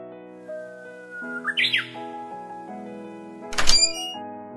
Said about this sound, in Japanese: ねえお父さんお母さんウグイスが鳴いてるあら本当ね珍しい